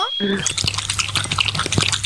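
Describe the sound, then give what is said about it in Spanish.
A dog laps water in quick, wet, rhythmic slurps, fairly loud, with a faint low hum underneath. “Es un perro tomando agua.”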